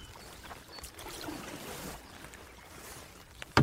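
Paddles work through water, a steady wash of splashing and gurgling with a few stronger strokes as a boat is brought in to dock, ending in a sharp knock as the boat nudges something.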